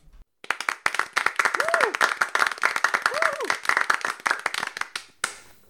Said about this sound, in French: On, va commencer par un round d'applaudissements rapidement.